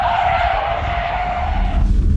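A loud, sustained tire skid screeches steadily for about two seconds, a tight high-pitched squeal over a rough rumble, as an electric Mach E car of the NYPD fleet brakes hard, with no voices.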